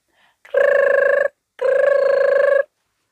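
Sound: telephone ringing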